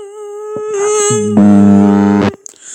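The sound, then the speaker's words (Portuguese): A voice imitates a mosquito in someone's ear, producing a sustained high-pitched buzzing whine that rises and thickens for about two seconds before cutting off abruptly, with no spoken words. “Eu fazia isso, chegar assim, fazer barulho de mosquito, assim.”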